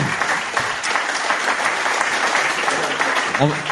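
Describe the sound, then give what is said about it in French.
An audience applauds all the speakers of a discussion steadily, a dense wash of many hands clapping at a fairly loud, even level throughout, with a voice briefly surfacing near the end. “On peut applaudir tous nos intervenants.”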